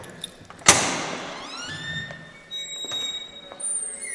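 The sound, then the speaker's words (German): A heavy prison cell door gives a loud metallic clunk as it is unlocked, then swings open with a long, drawn-out squealing creak, with no one talking. “Jeder Insasse hat auch einen eigenen Schlüssel, dass wenn man draußen ist, aus seiner Zelle eben selber abschießen kann.”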